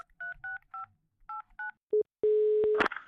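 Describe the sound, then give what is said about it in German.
Five quick dual-tone beeps of a phone keypad being dialed to call a psychotherapist, followed by two steady ringback tones, the second cut off by a click as the line picks up. Clear, no talking. “Dann lass uns den mal anrufen, warte.”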